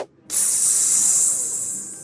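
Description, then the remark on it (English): A loud, steady sizzling hiss starts abruptly after a moment of silence and continues, bright, fading slightly toward the end: an onion, pepper and mushroom pizza sizzling on top of a stack of hats on someone's head. “Minutes later, he had an onion, pepper, and mushroom pizza sizzling on top of his head.”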